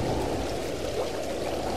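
A stream flows over rocks beneath a large disused railway bridge with red arches, with a constant rushing, bubbling wash of water, even in loudness throughout, with no voices.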